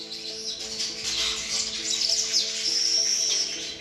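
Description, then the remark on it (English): A dense chorus of many birds chirping and twittering at once at a nest hung around a trunk or pole, a steady bright chatter with a few clearer whistled calls rising above it, continuous and fairly loud throughout, with no voices. “At the same time, is also a, an incredible uh, sound installation because uh, it, the sound of it, of many birds together, changes throughout the day.”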